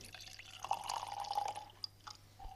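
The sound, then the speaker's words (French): 2016 Les Corandis cuvée Viognier wine pours into a tasting glass with a bright, gurgling trickle that rises briefly in pitch, followed by a few soft drips and clinks, quiet with no talking. “On va commencer par le millésime 2016 en cuvée Les Corandis, cépage vionnier.”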